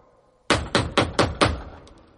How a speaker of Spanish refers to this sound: Un toque de puerta te puede cambiar las pulsaciones